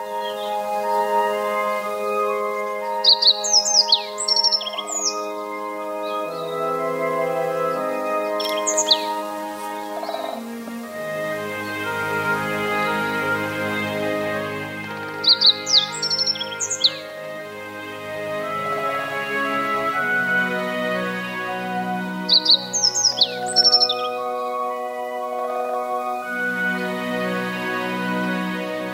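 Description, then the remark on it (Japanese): Yellow bunting and great spotted woodpecker calls, recorded in Nishigo Village, come in three short bursts of sharp, high chirps, heard over a steady, continuous melodic music bed. No one speaks. “今朝は西郷村の野地子と赤ゲラをお送りしました”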